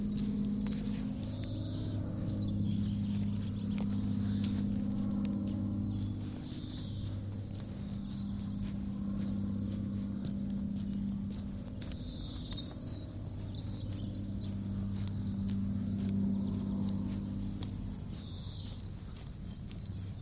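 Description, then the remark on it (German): Birds chirp and tweet in scattered bursts outdoors under a clear, sunny blue sky, while a steady low engine drone from a single-engine propeller plane in the sky hums underneath throughout. “aber zwitschernde Vögel und einmotorige Propellermaschine im Himmel.”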